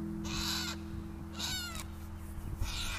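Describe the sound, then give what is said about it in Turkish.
A white parrot perched on top of a swing lets out three loud, harsh screeches in a row, each a broad raspy blast with short pauses between, over a steady low hum in the background. “Niye bağırıyorsa bu papağan da beyaz papağan. Şeye çıkmış salıncağın üzerine çıkır çıkır bağırıyor.”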